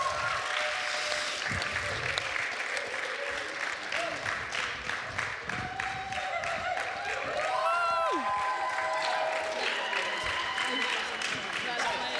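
An audience claps steadily throughout, a dense wash of applause with scattered cheers and whoops rising over it, plus a brief gliding whistle partway through.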